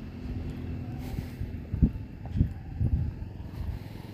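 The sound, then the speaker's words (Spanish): A motorcycle circling around the area, its engine rumbling low and steady, swelling in a few brief surges as it passes, fairly faint with no voices. “una moto anda dando vueltas por aquí, no sé qué está haciendo.”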